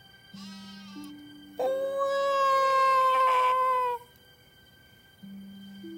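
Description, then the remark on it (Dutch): A baby cries once in a single drawn-out wail lasting a couple of seconds, loud, with soft sustained background tones before and after. “Een babytje. De herders gaan op het geluid af.”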